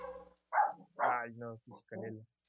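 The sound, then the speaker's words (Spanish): Several short, tonal barks and yelps from a dog, coming in a quick irregular burst of about five calls with brief gaps between them. “pero todos los perros darán, Para que veas el nivel de tensión que hay ahorita.”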